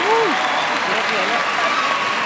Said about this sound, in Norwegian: Gi en applaus til dama med mest bein her.